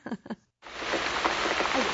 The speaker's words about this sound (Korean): 뭐야, 나한테 지금 소나기가 내려. 봄기운 어쩌고 했더니, 아이고, 그냥 가는 날이 장날이라든지, 게 아, 왜 하필 오늘 비가 온대냐, 그래.